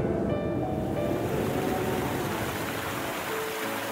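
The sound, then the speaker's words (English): Loud, steady rush of churning water roars without pause, like a fast river in full flood, with a faint tonal hum underneath early on and no voices. “Next, a river swift, its waters raging wild.”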